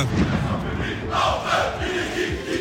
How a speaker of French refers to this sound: À la une de l'actualité, les fans des Verts se font entendre à l'appel des groupes de supporters. Plusieurs centaines de supporters ont fait part de leur colère ce dimanche après-midi avant le derby entre saint et Clermont.